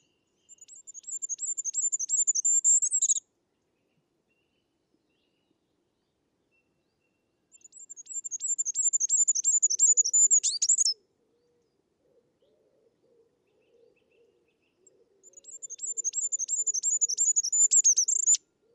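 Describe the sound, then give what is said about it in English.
A goldcrest's thin, very high-pitched song repeats three times, each a rapid trail of tiny notes ending in a brief flourish, with quiet gaps between phrases and no voices. “goldcrest call is a gentle trail of notes that sounds like it sings Figaro, Figaro, Figaro over and over”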